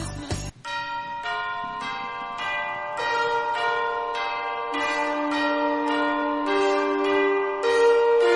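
Bells and jingle bells ring out in a steady, melodic run of strikes, evoking Christmas, each chime overlapping the lingering ring of the one before, loud with no voices.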